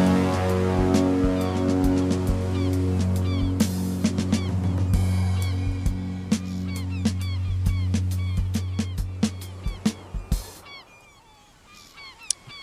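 Seagulls call out again and again in short, sharp cries over a sustained, droning musical backdrop at the end of a song, with the music thinning toward the end while a few scattered gull calls remain.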